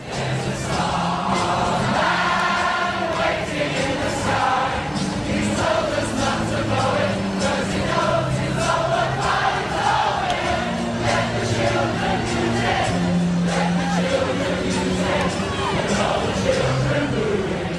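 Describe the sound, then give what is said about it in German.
A large crowd gathered in Brixton, London, to mourn sings together in unison, many voices blending into steady, sustained melodic lines that hold at a constant loudness throughout, with a dense murmur of voices underneath. “Wir hören nochmal kurz hier, wie es in Brixton war, seinem Heimatstadtteil.”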